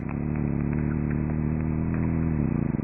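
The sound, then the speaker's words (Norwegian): A tusk fish makes a loud, low, buzzing drone underwater to defend its territory and warn other tusk fish away, steady and unbroken for about three seconds, with a faint pulsing texture that grows uneven toward the end. No voices. “Og dette er da ei brosme som bruker lyd for å forsvare territoriet sitt.”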